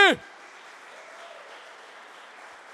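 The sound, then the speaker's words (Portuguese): An audience breaks into steady, sustained applause for Jesus, many hands clapping together in a dense, even wash of sound right after a brief shouted voice at the very start. “E aplauda Jesus bem alto, gente!”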